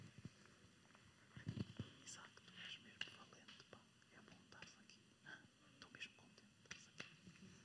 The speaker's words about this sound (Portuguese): Alguém ouviu o que eu disse? Mas eu falei português. Falei baixinho e aproximei-me de alguém.